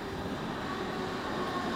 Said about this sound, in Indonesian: Ada suara gemuruh dan bunyi rem logam yang menggurat telinga. Kereta masuk.